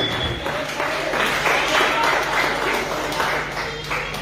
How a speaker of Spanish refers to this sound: Un fuerte aplauso